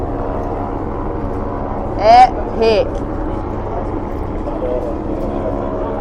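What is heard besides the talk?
helicopters flying overhead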